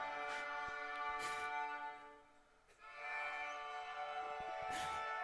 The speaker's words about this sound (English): Do you hear that sound? Does anybody know what that is? grade band that sounds like a bagpipe? that is a fourth and fifth grade orchestra. Listen, wow.